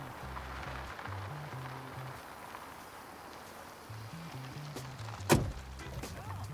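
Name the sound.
car arriving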